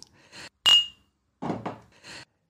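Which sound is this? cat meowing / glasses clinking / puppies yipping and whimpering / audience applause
glasses clinking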